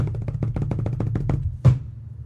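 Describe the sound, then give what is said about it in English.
A quick run of steady taps like a small drum roll gives way to one louder, low, dull drum thud, played as a rim shot, that rings briefly and fades. No one speaks. “Even though it didn't sound like a rim shot, it was just a right. thud like a drum.”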